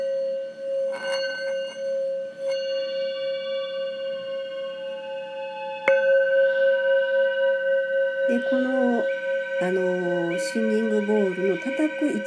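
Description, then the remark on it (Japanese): A singing bowl, played by rubbing around its rim, rings with a steady, shimmering hum layered with bright overtones. It is struck again about halfway through so the tone swells, while a person begins talking over the lingering ring near the end. “シンギングボウルと周波数音楽♪鳴らしてみました”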